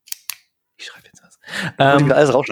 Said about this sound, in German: Guck mal, das Mikrofon ist so gut, man hört sogar, wenn ich knipse.